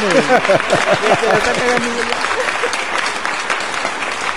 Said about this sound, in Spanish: aplausos por esa rolita con nuestra conversación bien perrona